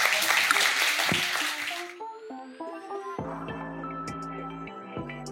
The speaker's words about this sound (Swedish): Stort tack för att du kom. Tack så mycket. en applåd.